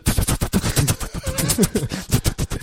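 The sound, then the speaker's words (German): A voice mimics a battery-powered toy bat hung from a ceiling that flaps in circles when someone walks past, with a fast, continuous run of sputtering, fluttering bursts, fairly loud, lasting a few seconds with slight pitch wobbles. “batteriebetriebene Fledermäuse, die man so an die Decke ja, ja, hängt und dann flattern die immer so im Kreis”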